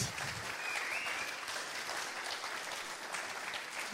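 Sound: audience applause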